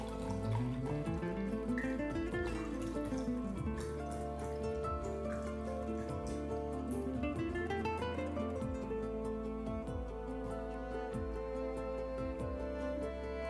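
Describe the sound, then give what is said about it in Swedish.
Water pours from a bottle into a glass in several steady bursts, the gurgling pitch climbing each time as the glass fills up to the top. Clear, with no talking. “Så jag tar de mitt vatten här och fyller upp det där glaset.”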